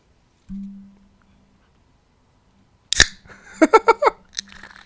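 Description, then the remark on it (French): A beer can cracks open with one sharp pop, followed by a brief fizzing hiss as the beer foams and a few small clicks, after a faint low hum and silence. No one speaks. “On va faire un petit ASMR pour ouvrir la canette.”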